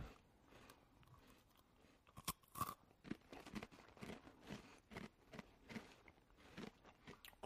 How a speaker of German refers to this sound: Ja, erstmal, während ich hier meinen, ja, ich Blätterteig, Käsestange esse.